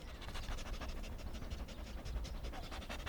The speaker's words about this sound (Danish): Måske du har lagt mærke til, hvordan hunde går og snuser og snuser og snuser. Det er ikke mad, de leder efter. Næh, hunde er så gode til at dufte, at de bruger dufte til at snakke med hinanden.